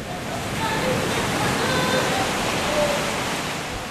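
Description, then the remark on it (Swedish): A steady, full wash of surf as sea waves roll and break on the shore, the rushing noise staying loud and continuous from start to finish. “Så, ja, det är, det är såna alla möjliga känslor som kan man överleva här med havet.”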